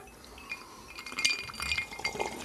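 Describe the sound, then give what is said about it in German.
A few bright glass clinks ring out, a quick cluster of chimes with lingering high tones, as glasses are tapped together in a toast with no talking. “Also erstmal Prost. Erstmal Cheers. Prost.”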